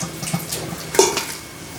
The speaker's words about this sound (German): Die Erdäpfel damit abgießen? Ja, Erdäpfel sind fertig. Die sind fertig, sind wie gesagt, gesalzenes Wasser, aufpassen, ja. dass es nicht zu viel ist. Du nimmst jetzt ein großes ein Sieb.